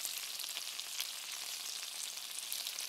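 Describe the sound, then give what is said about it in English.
Steady, dense sizzling of food frying in a pan, with fine crackles and pops scattered throughout, bright with no talking. “Okay, this one's sizzly.”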